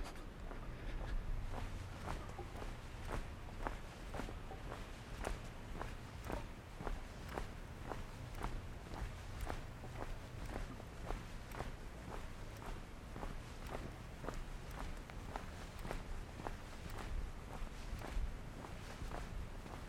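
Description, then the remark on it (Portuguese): Steady footsteps walk along a short stretch of street where the door of the Clube Mackenzie is, in an even, unhurried rhythm, each step a crisp scuff over a constant low rumble of background noise, with no voices. “Agora estamos percorrendo um pedacinho de rua onde fica a porta do, do Clube Mackenzie.”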